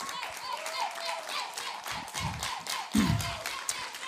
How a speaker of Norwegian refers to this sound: Kan alle fra 7. klasse reise seg? Konge. Gi dem en skikkelig applaus.